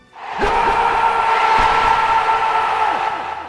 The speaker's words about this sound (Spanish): Si alguna vez pisasteis una cafetería o arcade que contara con un gabinete de Virtua Striker, es bien seguro que el grito de celebración al marcar un tanto os atrajera irremediablemente hasta esta máquina